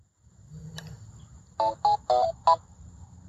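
A WeWalk smart cane's power-on confirmation tone after pairing with a phone: four short, clear electronic beeps in quick succession, fairly loud over a low background hum, preceded by a faint click.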